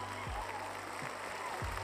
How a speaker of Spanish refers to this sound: Espérate, tengo que ponerte los aplausos también.